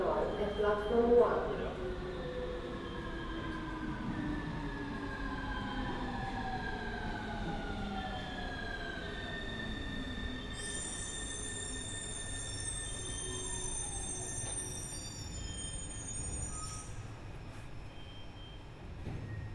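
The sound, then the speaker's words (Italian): A train bound for Vignano Parco Nord rolls past on the rails with a steady rumble, its drawn-out tones sliding downward, and shrill wheel squeals rise partway through before fading, with faint voices in the background. “Treno per Vignano Parco Nord”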